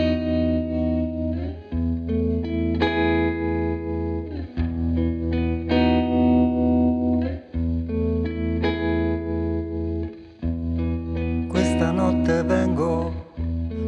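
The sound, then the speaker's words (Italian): An instrumental pop song intro plays at full volume, with sustained processed chords shifting every couple of seconds and a brighter shimmering flourish near the end. No one speaks. “vi lascio l'ascolto del suo brano.”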